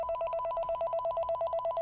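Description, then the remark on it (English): An unexpected incoming call: a telephone rings with a rapid, trilling bell that pulses steadily for about two seconds, fairly loud, with no voices over it before it cuts off. “Well, no, okay, we just got a had a random ass phone call there.”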